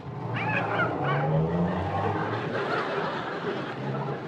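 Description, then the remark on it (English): A car pulls away with a couple of short, sharp tire squeals near the start, followed by a loud, steady engine roar and road noise that carries on to the end. “Come on, let's get in the car.”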